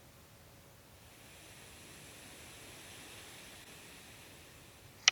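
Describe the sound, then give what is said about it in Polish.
A steady, moderate breeze of 20 to 28 km/h whooshes continuously, swelling gently toward the middle before easing, with a brief sharp crackle right at the end. No one speaks. “Umiarkowany wietrzyk 20 do 28 km na godzinę.”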